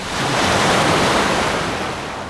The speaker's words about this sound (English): Big waves. Finally, some waves on Koh Samui.